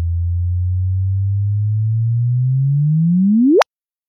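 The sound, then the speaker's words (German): A gravitational-wave signal registered by detectors, its last seconds converted into audible frequencies: a low, steady hum that slowly rises in pitch, then sweeps sharply upward into a brief high whoop and cuts off abruptly. No voices. “Wenn man die letzten Sekunden in hörbare Frequenzen überträgt, klingt das so.”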